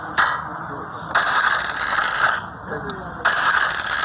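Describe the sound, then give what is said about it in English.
Dice are shaken and rolled during a game at a club, rattling and clattering in three loud bursts, a dense, dry clicking that cuts off abruptly between shakes, with no voices over it. “Let the dice speak, man.”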